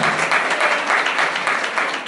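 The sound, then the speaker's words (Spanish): An audience applauds for the king, a dense, steady wash of many hands clapping with a bright crackling texture that holds at an even loudness throughout. “Denle el aplauso al rey.”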